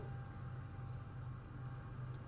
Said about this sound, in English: well, if you guys hear the train, you know that we are in Bingin.